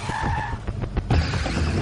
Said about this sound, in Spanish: para el automóvil justo antes de aplastar el coche teledirigido. Nervioso, acelera, pero frena y se para a unos metros de la casa de Hank.